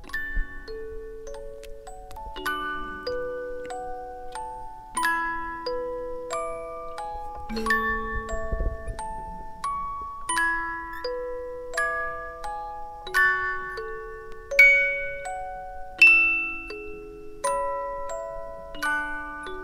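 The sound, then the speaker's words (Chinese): A music box plinks out a slow, delicate melody, one bright note after another with short ringing decays, steady and unaccompanied by any voices for about twenty seconds. “我用这个这个八音盒来记录，就说他生命中最后的这些事情。你听，这个声音还在，嗯。”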